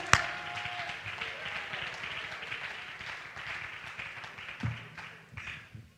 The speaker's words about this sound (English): Oh, somebody just shout right now, would you? Come on, clap your hands to the Lord. Hallelujah.